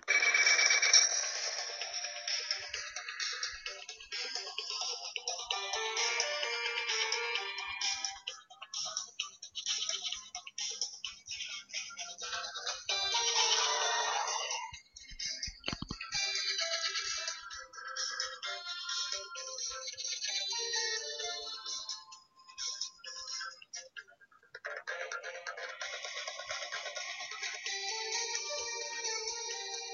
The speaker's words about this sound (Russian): Это звучит тревожная музыка.